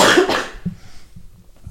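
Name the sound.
cough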